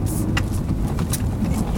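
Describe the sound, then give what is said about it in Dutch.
Steady low rumble of a car driving on a bumpy, hilly road, heard from inside the cabin, with a constant engine and road drone and a few brief hissing swells of tire or wind noise. “Ik kan me ook voorstellen dat wij nu hier rijden en dat mensen zeg maar denken.”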